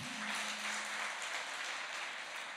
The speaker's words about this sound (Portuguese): Aplauda o Senhor, amado.